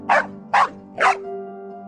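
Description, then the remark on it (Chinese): A dog named Xiaohei barks furiously at a longevity lock on a woman's neck, three loud, sharp barks in a quick even rhythm, followed by a faint steady hum. “小黑站在一旁，对着黄雅丽脖子上的长命锁拼命的吼叫着”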